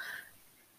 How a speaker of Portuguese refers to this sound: Uh, peço desculpa, foi um arroto.